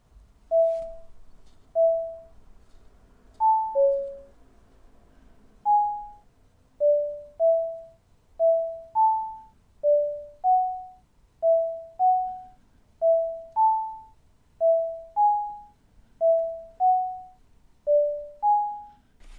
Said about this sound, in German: Es sind fünf Töne vorweg, die zum Abstoß und zum Tauchzug gehören und mit dem sechsten Ton geht quasi das Schwimmen los.